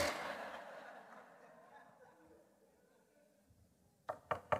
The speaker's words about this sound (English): Behold, I'm standing at the door knock.